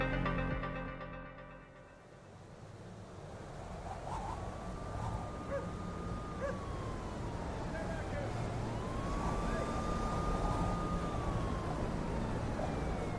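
A siren in a city at night wails in slow, rising and falling sweeps above a constant low rumble of city traffic, the tone drifting up and down for several cycles.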